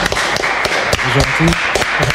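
A short burst of applause from a small crowd welcoming a band at the start of a show, dense clapping with a few sharper claps and brief cheering voices mixed in partway through.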